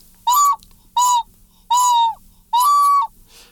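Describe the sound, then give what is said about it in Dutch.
A ceramic whistling vessel, made to sound overtones and give a different tone at higher blowing pressure, sounds four loud hooting toots. Each is a steady breathy tone rich in overtones, some with a slight downward bend at the end, with short pauses between. “Dat is eigenlijk dat je een fluitje ontwikkelt die bij een hogere druk een andere toon heeft.”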